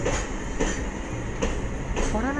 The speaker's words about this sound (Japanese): なんかね貨物列車が入ってきましたでねあのー、セメント運ぶ列車がですね来るんですけど